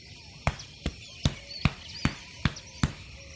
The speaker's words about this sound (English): On my count, I want you all to puff your chests out, pretending to be huge, 500 pound gorillas, and bang the palms of your hands on your chest, like this.